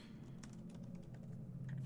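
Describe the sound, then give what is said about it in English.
Soft, irregular clicking of someone typing on a computer keyboard to search online, a quick run of light keystrokes over a steady low hum, with no one speaking. “Um, okay, hold on, I'm googling it.”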